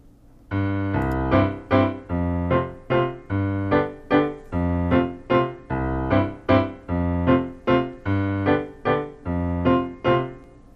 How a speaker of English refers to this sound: take this piece back in time and play it as if a Romantic era composer like Chopin wrote it